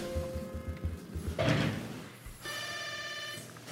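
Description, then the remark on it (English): An apartment building intercom buzzer, pressed by visitors waiting to be let in, sounds a steady, harsh electronic tone for over a second, preceded by a soft thud and low rhythmic rattling. No one speaks. “Um, okay, buzzing.”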